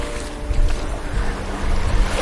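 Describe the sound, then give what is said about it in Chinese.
Sea waves washing onto the shore, a steady hissing rush over a deep rumble, swelling slightly in the middle and again near the end, with some wind buffeting and no voices. “你和海浪真的游戏，只有你们自己能懂。”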